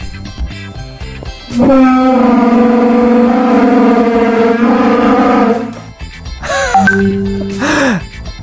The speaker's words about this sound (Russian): Нет, ничего подобного. Это человек отодвигает стул.